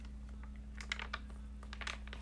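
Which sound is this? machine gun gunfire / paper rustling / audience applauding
paper rustling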